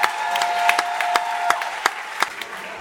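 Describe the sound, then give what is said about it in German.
An audience applauds steadily as the jury members are called to the front, a dense wash of many hands with sharper individual claps popping out irregularly above it, fairly loud and sustained throughout with no talking. “Bitte mal mit einem ganz großen Applaus die Jurymitglieder bitte zu uns hier nach vorne.”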